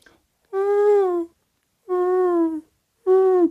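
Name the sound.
voice imitating pigeon cooing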